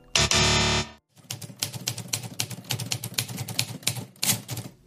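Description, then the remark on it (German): A loud, steady buzzing tone for about a second, then rapid, irregular typewriter clatter: dense clusters of sharp key strikes, with no voices. “da höre ich doch, glaube ich, Schreibmaschinengeklapper. Oder vielleicht eher Tastaturen von Computern.”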